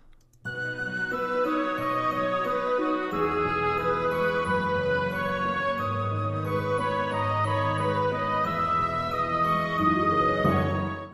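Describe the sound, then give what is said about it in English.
The first melody returning, bright and tinkling, played on piccolo, glockenspiel and harp over a steady orchestral backing, sustained and fairly loud throughout with no voices. “Um, I have the first melody come back.”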